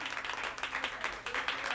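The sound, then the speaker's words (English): A round of applause from a group, many hands clapping in a dense, crackling wash with a few sharper claps standing out, steady and moderately loud throughout. “So I just wanted to give a round of applause to”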